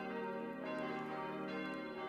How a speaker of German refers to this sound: Darin läuten vier in Karlsruhe gegossene Bronzeglocken. 1996 haben sie das Nachkriegsstahlgeläute ersetzt.